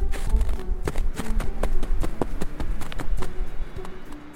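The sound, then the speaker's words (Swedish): Heavy boots stamp repeatedly on hard ground to warm cold feet at minus 12 degrees: a quick, uneven run of dull thuds that continues steadily throughout, with no voices. “Jag försöker stampa igång dem, för det finns inga grenar att stå på ännu eftersom inget träd ännu är fällt.”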